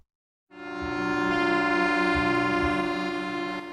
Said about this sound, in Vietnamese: Cảng Tân Vũ, công ty cổ phần cảng Hải Phòng, không khí làm việc vẫn khẩn trương, hối hả. Tiếng còi tàu vang rèn trên bến cảng, hòa trong tiếng sóng, tiếng gió biển.